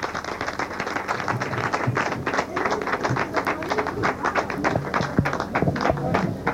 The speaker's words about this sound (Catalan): Un aplaudiment general.